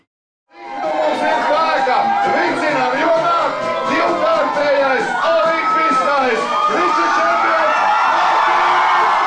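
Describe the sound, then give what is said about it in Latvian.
A large crowd at Riga airport cheers and shouts in a dense, steady roar of many overlapping voices, welcoming the Latvian team home from Sochi with a silver medal on 17 February 2014. It starts abruptly after a brief silence and stays loud, with occasional higher whoops rising above it. “Kādas ovācijas, gaviles, daudz ļaužu ziedi, sveicieni.”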